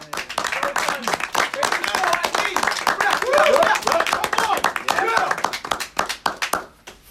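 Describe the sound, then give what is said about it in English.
A crowd claps steadily for about seven seconds, a dense patter of many hands with sharp overlapping slaps, tapering slightly toward the end. Voices murmur and call out beneath the applause. “Let's give him a clap.”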